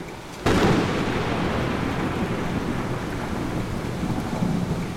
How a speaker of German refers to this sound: Und plötzlich erschrak ich. Ein blendender Blitz mit einem gewaltigen Krachen, Zischen und Knistern fuhr unweit von mir in eine Baumgruppe.